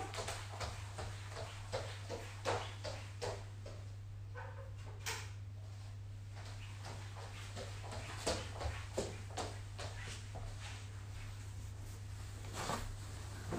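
Quick, irregular footsteps thud and tap for several seconds as someone runs to fetch an iPad, fairly quiet against a steady low electrical hum, with no one speaking.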